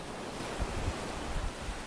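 Steady surf washes in continuously on a Baltic Sea beach, a broad soft roar with gentle low swells, wind brushing faintly across the microphone. No voices are present.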